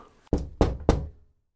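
Three sharp knocks on the glass of a baroque mirror, evenly spaced about a third of a second apart, fairly loud, each with a short ringing decay before silence.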